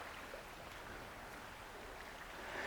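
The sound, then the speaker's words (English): A steady, continuous rush of river water flowing nearby, a broad bubbling wash that stays even throughout with no voices. “And here, as you can hear, I've got the sound of the beautiful river running by next to me.”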